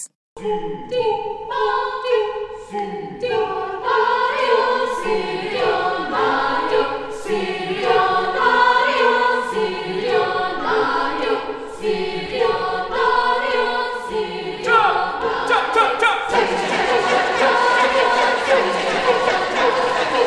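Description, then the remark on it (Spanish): An Indiana University choir performs a Balinese dance chant: a large group of men chant together in loud, rhythmic vocal bursts with stacked harmonic tones, repeating in forceful pulses before swelling into a denser, noisier crowd-like roar near the end. “Los efectos vocales que vas a escuchar evocan luchas y situaciones turbulentas.”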